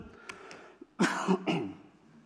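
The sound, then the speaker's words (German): Two quick, rough coughs, about half a second apart, preceded by a few faint throaty sounds, from a person with a slight cold; no one speaks. “ich werde ab und zu mal husten müssen, weil ich ein bisschen erkältet bin.”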